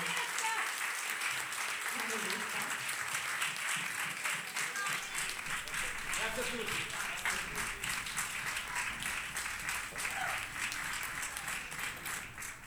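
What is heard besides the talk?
audience applause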